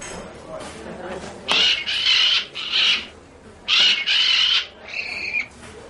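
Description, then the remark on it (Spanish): A caged parrot in a bar squawks loudly after a thrown dart hits its cage, a run of about five harsh, raspy screeches in quick succession over faint background noise. “Tira otro y da en la jaula de un loro.”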